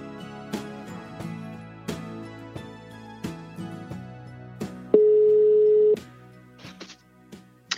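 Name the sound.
telephone ringing tone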